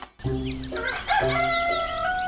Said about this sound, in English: It was a beautiful morning. Birds were singing.